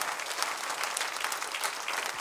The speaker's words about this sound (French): Est-ce qu'on peut juste applaudir le Seigneur pour ce qu'il fait vraiment Dieu agit pour de vrai.